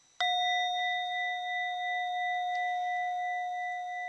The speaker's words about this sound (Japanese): このおりんに関してなんですけど音の高さっていうのも結構あのー深い関係があるかなって感じています